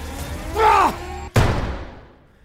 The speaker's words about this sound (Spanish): En ese instante, la puerta se abrió de golpe, como azotada por una ráfaga de viento.